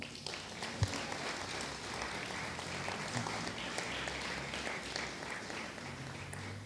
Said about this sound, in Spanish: Gracias, amigo. Un aplauso al Señor, amén.